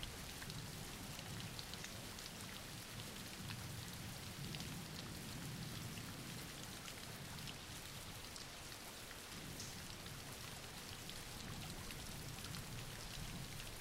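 Steady rain falls without pause, a dense, even hiss of drops pattering on a surface with a soft low rumble underneath. No voices, just continuous rainfall at an unchanging level.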